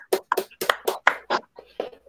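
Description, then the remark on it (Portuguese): A short burst of hand clapping, about nine crisp claps in a fairly steady rhythm, moderately loud, with no one talking over it; a round of applause for Rocinho and Lula Holanda during a live stream. “Uma salva de palmas para Rocinho e para Lula Holanda aí, ó.”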